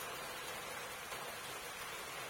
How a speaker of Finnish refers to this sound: Säämies ja reporankka heräsivät sateen ropinaan.